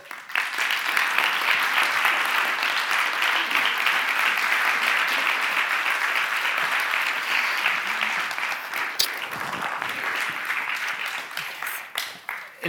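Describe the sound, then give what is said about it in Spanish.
An audience applauds to welcome actress Marta Poveda, clapping steadily for about twelve seconds, a dense, even wash of many hands that thins slightly toward the end, with a few sharper individual claps near the close. “Y recibamos con un aplauso a Marta Poveda.”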